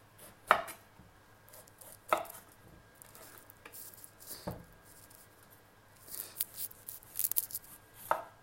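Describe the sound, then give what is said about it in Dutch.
A knife cuts clear against a board, with a few sharp, spaced strokes and a run of quick scraping slices near the end as a thin layer of peel is cut off all the way round a vegetable. “Mooi rondgaan dunne laag eraf snijden telkens.”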